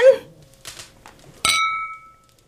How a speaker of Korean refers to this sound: 와인 한 사람당 세병씩 좋아요. 공평하지 않은 세상에 와인은 공평하게. 짠!